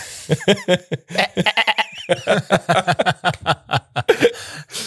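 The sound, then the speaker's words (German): A person imitates a goat with a rapid string of quavering, nasal bleats, fairly loud, the stuttering vocal bursts running nearly continuously for the whole stretch. “Wie, wie macht eine Ziege? Mäh.”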